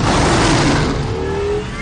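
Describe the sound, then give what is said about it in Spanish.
Batman's black prototype car roars into life in an alley and accelerates hard, its whine climbing in pitch over a loud, rushing rumble that eases slightly in the last moments as it speeds off past Gordon. “El prototipo negro de Batman arranca y pasa a toda velocidad junto a Gordon.”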